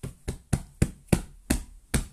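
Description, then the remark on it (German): Seven soft, muffled thumps of a person knocking on their duvet, evenly spaced in a steady rhythm, moderately loud, with no voices. “Hier war gerade einfach nur meine Bettdecke.”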